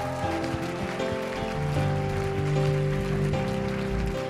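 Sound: audience applause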